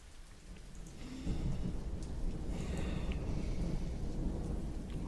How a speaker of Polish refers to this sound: I razem z jej splunięciem bardzo silny grzmot. Nad całym Piotrkowem burza się zbliża. Zaczyna też kropić.